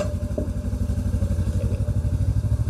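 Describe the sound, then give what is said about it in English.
A motorcycle engine chugs steadily as people ride motorcycles, with a low, rhythmic putter and some mechanical clatter, holding a fairly even loudness throughout without any voices. “some people moving with motorcycles”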